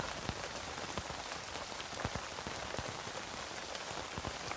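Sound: rain falling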